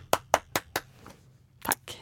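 A brief bit of applause at Acast from what sounds like one or two people: four quick, evenly spaced sharp claps, a short pause, then a couple more, with no voices.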